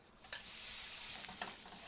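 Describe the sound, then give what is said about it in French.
Chanterelle mushrooms frying in butter and being browned to a light crust for a risotto: a steady bright sizzle with faint crackles and a couple of sharper pops, continuous and fairly loud with no talking. “La deuxième étape, je les passe au beurre.”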